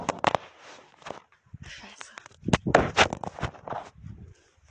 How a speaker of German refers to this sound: Ähm, mein Handy ist gerade runtergefallen.